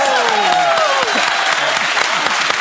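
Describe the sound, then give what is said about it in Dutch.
A burst of audience applause, dense steady clapping from a crowd that fills the whole stretch at a strong, even level, with a few voices and cheers rising faintly through it, as a guest is crowned ambassador of reading promotion on behalf of the CPMB, the collective book promotion in the Netherlands. “Applaus!”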